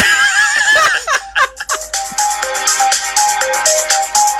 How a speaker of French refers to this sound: Et ça chante ou pas Non. C'est que instrumental. C'est mélodique techno.